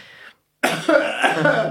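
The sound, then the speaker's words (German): A voice imitates loud, harsh coughing: a short breathy burst, a brief silence, then a longer, rough, forceful cough sequence with no words spoken. “Ja, man muss dazu sagen, beim Rückflug saß so ein Typ neben uns, der einfach die ganze Zeit richtig krass laut gehustet hat, so.”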